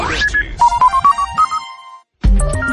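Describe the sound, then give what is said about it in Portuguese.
The Rádio Bandeirantes time signal from São Paulo, Brazil, marking 7:30: a quick run of short electronic beeps, steady in rhythm and gently stepping up in pitch, then a brief silence before a loud burst of sound at the end. “O quinto sinal da Rádio Bandeirantes marca 7 horas e 30 minutos.”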